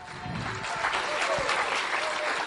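An audience applauds the Lord loudly and steadily, dense clapping for a few seconds with some faint voices mixed in.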